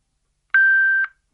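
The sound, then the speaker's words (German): A single steady electronic tone sounds for about half a second, clear, with a soft click at its start and end, then silence, as a Bluetooth hands-free phone device is switched on. “Ich will es mal einschalten, hören Sie mal. Strom ein.”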